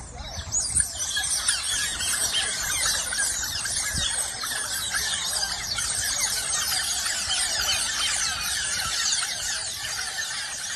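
Otters squealing continuously in shrill, high-pitched chatter, a dense chorus of overlapping piercing calls that stays loud and steady throughout with no talking.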